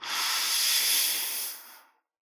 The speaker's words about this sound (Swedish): Andas in ah. i magen. Ah, ah ja. Och så ett sista andetag. Försöker känna ner i roten, i könet, ända djupt ner. Andas ända ner.